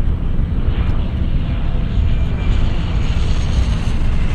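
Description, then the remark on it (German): A simulated airliner braking fully on the ground as it rolls to its parking position: a loud, steady, deep rumble of engines and rolling noise continues without a break, with no voices. “Ich habe jetzt gebremst, wie man hört. Und zwar voll, also mit Altposition Ende.”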